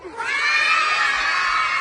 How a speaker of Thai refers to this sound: มีเด็กเข้าร่วมโครงการนี้มากกว่า 2,000 ชีวิตแล้วนะคะ และเป็นวันแรกค่ะ ที่พวกเขาจะได้ลองชิมอาหารผ่านโครงการนี้ อยากให้คุณผู้ชมได้ลองชมบรรยากาศของการกินอาหารกลางวันวันนี้ค่ะ